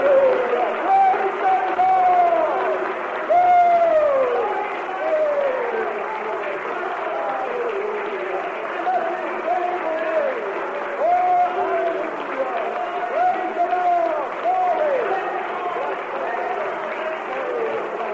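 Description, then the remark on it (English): An audience claps and cheers for Jesus for the full stretch, shouting hallelujah and glory, a dense, steady wash of many voices with rising whoops and shouts riding over scattered applause. “Let us shout hallelujah and glory, amen, as we give Jesus a hearty clap.”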